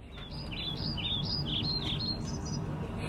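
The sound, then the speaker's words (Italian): Birds chirping in a rapid series of short, bright, high tweets over a steady low background rumble with no voices. “Sì, ma gli uccelli si sentono ma perché?”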